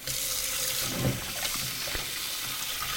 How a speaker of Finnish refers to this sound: Ja sitten voi vähän sitä sekoittaa siinä siivilässä, niin se oikein kunnolla, kunnolla tota huuhtoutuu. Ja sitten kaadetaan se vesi pois. Ja uudelleen sama. Kolme kertaa se pitää kuumalla vedellä huuhtoa.